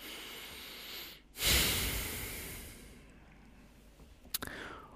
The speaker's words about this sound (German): Und dann atmen wir einfach nochmal einmal ein und aus.